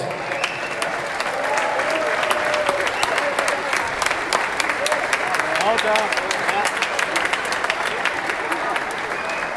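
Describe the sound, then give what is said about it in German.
A large crowd applauds athletes at a sports awards ceremony in Norderstedt, dense overlapping clapping sustained at an even loudness throughout, with a few sharp individual claps standing out and faint crowd murmur underneath. “Unsere Sportlerinnen und Sportler mit ihren tollen Leistungen, das ist euer Applaus.”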